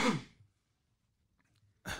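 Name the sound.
a sneeze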